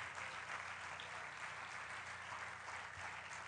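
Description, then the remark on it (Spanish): An audience applauds steadily, giving a loud round of applause to Christ, a dense, continuous wash of many hands clapping at an even loudness throughout, with no voices standing out. “Denle un aplauso fuerte a Cristo.”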